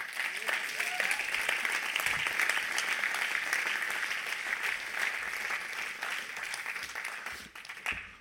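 Sustained applause from a sizable crowd fills the space, a dense wash of many hands clapping at steady loudness for several seconds before tapering slightly at the end.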